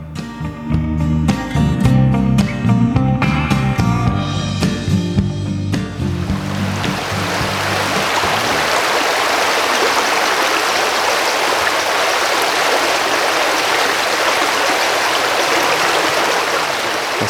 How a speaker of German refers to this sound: Das sind einfach hier schöne Klänge. Wir hören den Elzbach, der hier durch dieses ja, namensgebende Elztal auch fließt. Ich finde es herrlich.